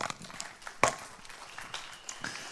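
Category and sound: crowd, audience clapping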